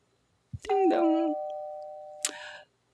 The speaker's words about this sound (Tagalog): Alright, sige, teka. Doorbell tayo ha.